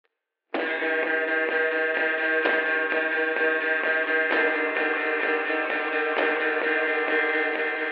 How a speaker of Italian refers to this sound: Colonna sonora. ….